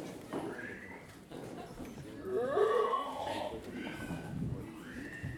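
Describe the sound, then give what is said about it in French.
A pig squeals repeatedly in high, wavering cries, loudest around the middle, over a rough, noisy background with some muffled voices. “Il faut écouter la parole du cochon lorsqu'il donne sa vie.”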